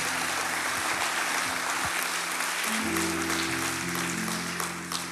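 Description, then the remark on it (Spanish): An audience applauds the Lord loudly and steadily, a dense wash of clapping throughout, while low sustained organ or keyboard tones swell in underneath partway through. “Dele un fuerte aplauso al Señor porque usted es un buen candidato en esta hora.”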